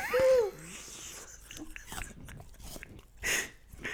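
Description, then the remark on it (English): A crisp, crunchy bite into an apple, followed by several wet chewing crunches and one louder crunch near the end, after a brief vocal hum at the start. “You can't see, but you're going to listen to this absolute crunch.”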